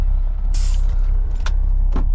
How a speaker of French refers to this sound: Il ouvrit la portière du camion. Un souffle d'air pressurisé qui s'échappait des freins se fit entendre, déchirant les silences de la nuit.